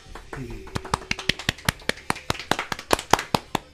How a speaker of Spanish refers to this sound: Fuerte aplauso.